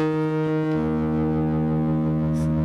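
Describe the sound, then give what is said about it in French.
A rich, sustained musical note holds steady with dense harmonics and a faint distorted buzz, shifting slightly in pitch early on before settling into a long, loud, unbroken drone. No voices. “Et cette note qui dure.”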